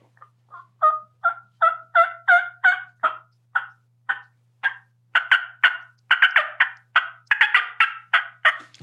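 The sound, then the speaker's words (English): A hen turkey cutting: a rapid, irregular string of sharp, loud clucks that grows faster and more excited toward the end, with no talking. “That's the that's a hen that's just cutting. That's a cut.”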